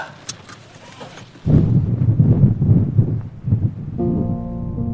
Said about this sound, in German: Ähm, zuerst dachte ich mir, ach, kein Problem, ich habe ja einen Regenschirm mit. Aber nichts da bei diesem Sturm, der hier herrscht, äh, ist es ausgeschlossen, einen Regenschirm aufzuspannen. Also heißt es einmal mehr Raus ins Unwetter.